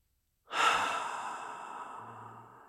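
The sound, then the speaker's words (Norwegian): A single deep, slow belly breath out, a long airy exhale that starts strong and gradually fades over about two seconds, with no talking. “Forlenger utpusten så vil du føles ut kanskje som en liten shot med beroligende.”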